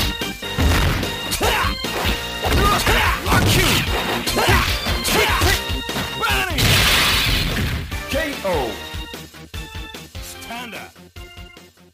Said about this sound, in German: Also schöne Kampfgeräusche, die Soundeffekte der verschiedenen Attacken sind cool und die Charaktere sprechen in Anführungszeichen auch nahezu permanent. Also jede Aktion wird begleitet von irgendeinem coolen Voice-Sample. Das ist alles top.